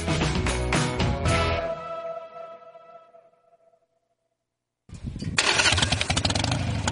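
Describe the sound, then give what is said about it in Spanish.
A Harley-Davidson motorcycle engine, with the rider sitting on it, roars loudly, then winds down and fades to silence before firing up again with a heavy, rumbling growl. No voices are heard. “¿Dónde has metido tu Harley? Buenos días, oyes el motor porque estoy encima de ella.”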